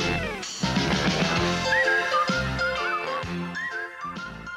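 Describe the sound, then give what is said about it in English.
A whistled melody glides and bends above a full, loud instrumental theme song, the opening theme of It's Garry Shandling's Show, with bass and steady accompaniment. The whistling carries the tune in short swooping phrases, and no one speaks. “We're almost to the part of where I start to whistle.”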